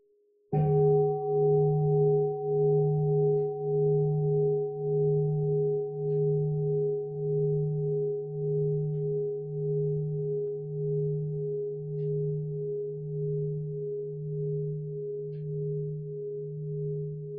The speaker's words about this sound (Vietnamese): xin sư cô thịnh một tiếng chuông cho mọi người buông thư trước khi mình đi tiếp tục